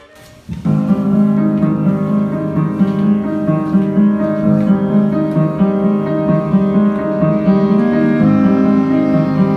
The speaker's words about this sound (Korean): 들리시나요? 세상 아름다운 청년들의 클라리넷 앙상블이 그리고 포기하지 않고 매일 40분씩 10년을 넘게 기본부터 연습시키는 한 30대 지휘자의 끈기가 일어낸 앙상블 드림 위드.